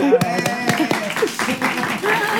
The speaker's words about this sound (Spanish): Em, Gracias. un aplauso,